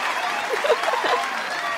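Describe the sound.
A steady burst of applause, dense hand-clapping that holds at an even level throughout, with a few faint voices or cheers rising briefly in the middle.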